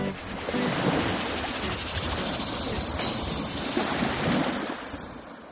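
Ocean waves break and wash steadily onto the shore in a continuous roaring surf, with a swelling crash near the middle and wind rushing throughout. No voices are heard.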